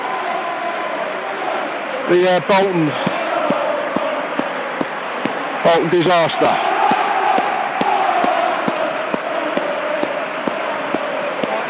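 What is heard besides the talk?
stadium crowd applause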